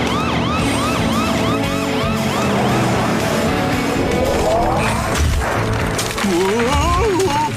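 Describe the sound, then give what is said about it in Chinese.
Loud, steady engine rumble of an approaching helicopter and trucks in the PAW Patrol cartoon, topped by repeated rising-and-falling siren wails throughout, with a brief clatter near the end and a voice-like warble in the last seconds. “我听到声音了，是直升机。你看，还有一些卡车。”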